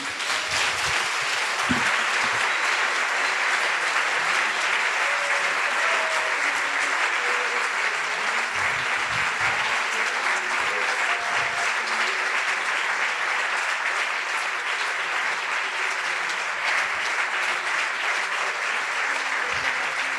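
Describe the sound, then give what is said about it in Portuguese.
A large worship audience applauds Jesus as their king, sustained, dense applause, steady and loud for about twenty seconds without letting up. “Vamos aplaudir o nosso rei.”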